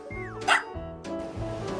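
A small dog yips and barks in quick, high-pitched bursts, with a brief whiny rising note at the start and no talking over it.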